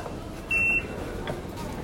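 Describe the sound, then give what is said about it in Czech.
A single short electronic beep from an Oyster card reader at a metro gate, a steady high tone lasting about a quarter second, over a low murmur of background noise. “Zrovna teďka jsme prošli uh, metrem s našimi oyster Card.”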